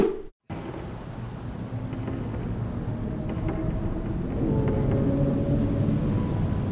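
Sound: rain with thunder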